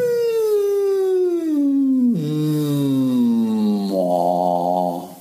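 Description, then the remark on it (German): A single hummed tone starts as high as possible and glides smoothly and continuously down to a low pitch, sustained for about five seconds without a break, as a singing exercise. No one speaks. “So hoch wie möglich fange ich an mit dem Summen.”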